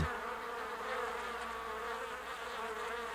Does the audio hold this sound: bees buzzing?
yes